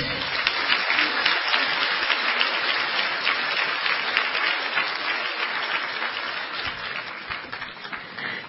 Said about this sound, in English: we would really like to invite Ajahn Brahma to uh, conduct the meditation workshop. So let's give him a warm round of applause.